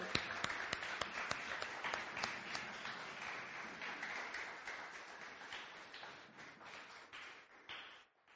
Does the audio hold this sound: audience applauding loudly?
yes